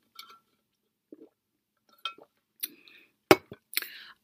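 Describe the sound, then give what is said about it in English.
A few sharp plastic clicks from a water bottle cap, fairly quiet, followed by brief slurping sips of water, with no talking. “I don't know if you can hear the click of my water bottle. Let me take a sip while I'm at it.”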